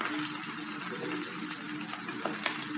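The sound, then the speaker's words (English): Bacon sizzles in a pan with a steady, dense hiss and crackle, fairly loud, with a couple of sharper pops near the end. “We interrupt this podcast to listen to Bacon Sizzle.”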